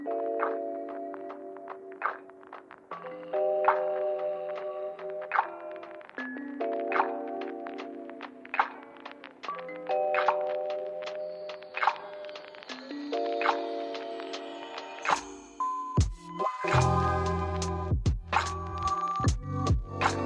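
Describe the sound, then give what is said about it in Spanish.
A mellow lo-fi chillwave, sad wave song plays, with chiming, bell-like keyboard chords repeating in a steady loop. Deeper bass and crisp percussion come in toward the end. No one speaks. “un artista quizás no tan melódico como Gustav, pero también en esa línea de chill wave, sad wave”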